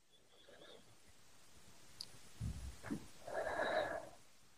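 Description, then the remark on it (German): A deep breath drawn in and let out, a soft airy rush with a brief nasal snort-like bit, alone against quiet background hiss. “Und atmen einmal tief durch.”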